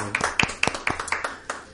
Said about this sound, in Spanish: Qué gusto. Qué bonito. Eh, ¿eh? qué, bonito. Qué Aplausos,